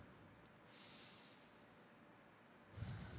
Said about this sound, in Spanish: Tomando una respiración profunda ahora.